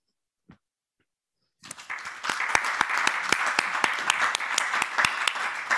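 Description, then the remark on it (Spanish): After a brief silence with a single faint tap, audience applause breaks out at about 1.7 seconds and continues steadily, a dense, loud wash of many hands clapping with sharp individual claps standing out. “Merecido aplauso porque la verdad es que el resultado ha sido eh, mucho más que óptimo.”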